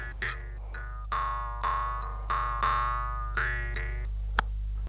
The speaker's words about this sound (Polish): i odszuka ten dyktafon, kupi baterię i nagra kilka dźwięków drumli na ten dyktafon.